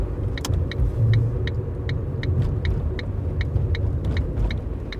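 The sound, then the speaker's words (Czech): Steady low rumble of a car moving along a road, heard from inside, as the driver is told to slow down before an upcoming right turn, with faint repeated high clicking ticks running through it and no talking. “Ano, zpomalte. Za chvíli budeme odbočovat.”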